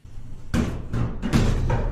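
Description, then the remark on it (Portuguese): Elevator doors rumble shut after a brief quiet moment, a loud mechanical slide broken into several heavy clunks and thuds that carry on to the end. No one speaks. “Depois do que pareceu uma eternidade, as portas começaram a se fechar.”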